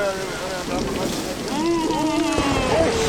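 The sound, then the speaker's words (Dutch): Steady, roaring storm wind rushes across the whole recording, loud, buffeting the microphone, while voices speak over it and rise toward the end. “de wind staat gelukkig de goede kant op.”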